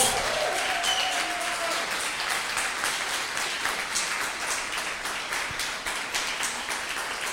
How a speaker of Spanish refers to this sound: Démele un aplauso a la palabra de Dios. Dele un mejor aplauso a la palabra de Dios.